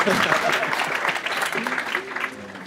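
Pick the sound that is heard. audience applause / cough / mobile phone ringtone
audience applause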